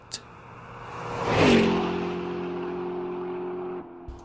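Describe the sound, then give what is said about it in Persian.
A car speeds off, its engine roar swelling to a loud peak before settling into a steady, droning whine that holds, then cuts away. No voices. “دست آخر به خیابان رسید و سوار بر ماشین با سرعت به سمت خانه سیما که میزبان مهمانی آن شب بود راهی شد”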